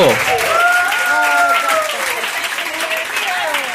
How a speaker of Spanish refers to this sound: Un aplauso.